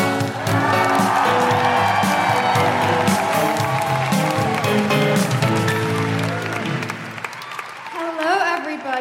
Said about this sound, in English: Um, I will tell you no more about her except to applaud loudly, cheer loudly, make all of your patriarchy smashing woohooing noises